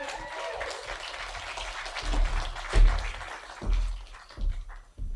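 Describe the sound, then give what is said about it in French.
An audience applauds steadily, a dense crackle of many hands clapping together, with a few louder thumps and swells midway before it starts to thin out toward the end. “On fait du bruit, des applaudissements”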